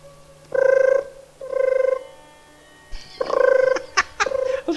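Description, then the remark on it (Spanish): A voice imitates an old cellphone ringing as a live sound effect for Commissioner Gordon's red phone: two steady, buzzy tones, then a faster warbling run of ring bursts, loud, with no other sounds around it. “Uy, como es un programa en vivo, tengo que hacer sonidos, cabrón.”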